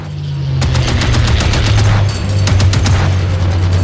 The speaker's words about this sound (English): Charlie squeezed the trigger and the twin 50 cals opened up.